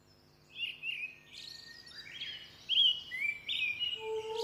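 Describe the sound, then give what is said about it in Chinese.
Birds calling, with a cuckoo among them: bright, high chirps and whistled trills overlapping in quick succession, then a couple of lower, clearer notes toward the end, moderately loud with no voices. “布谷鸟在空中急促地叫着：“ 阿公阿婆，割麦插禾。”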